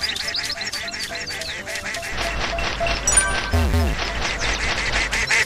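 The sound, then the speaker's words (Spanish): A video game duck quacks in a rapid, steady string of short nasal calls, loud, with a low rumbling beat joining underneath partway through; the beat plays when the player moves away from the duck while collecting bonuses in a forest level. “Bueno, hay que recoger los bonos sin alejarnos tanto del pato.”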